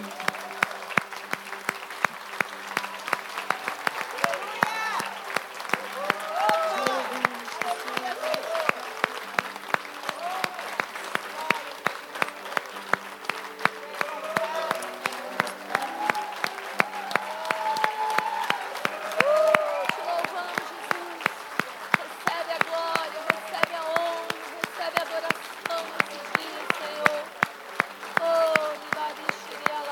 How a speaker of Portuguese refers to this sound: E agora nós queremos te aplaudir com grande força.